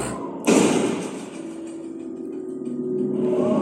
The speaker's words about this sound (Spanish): Era la puerta de... La puerta de escape que se abría súbitamente por el viento. La cerró y la aseguró para que no volviera a pasar lo mismo.